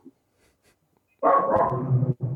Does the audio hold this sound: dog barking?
yes